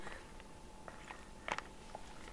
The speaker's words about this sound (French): Une autre petite gorgée de café parce qu'il est tellement délicieux.